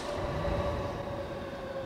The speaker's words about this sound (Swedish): Sektmedlemmarna sätter sig på tågen som börjar röra sig mot Kasumigaseki.